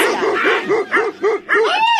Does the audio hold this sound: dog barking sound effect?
yes